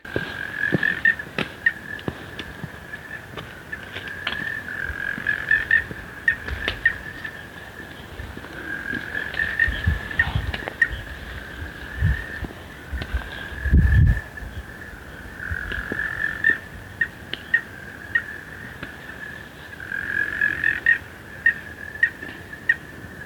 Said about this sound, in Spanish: no sabes cómo me gusta el oído, el, croar de las ranas.